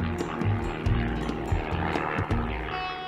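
A propeller airplane engine drones steadily and loudly, a continuous throbbing hum with rough pulsing, as the aircraft flies overhead.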